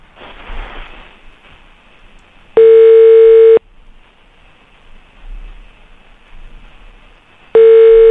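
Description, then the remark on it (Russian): Telephone ringback tones sound over a line on a call to Ukrainian people's deputy Anton Gerashchenko, adviser to Interior Minister Arsen Avakov: two steady one-second beeps about five seconds apart, loud and clear, with faint line hiss between them and no answer. “А есть у нас гудки?”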